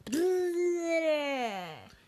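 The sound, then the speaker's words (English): A voice imitates a wolf fish's underwater howl: one sustained, strongly tonal wail that slides up at the start, holds a steady mid pitch, then sinks and fades over about two seconds. “So it was a little bit more like if they're blowing bubbles, like yeah, that's how the wolf fish howled.”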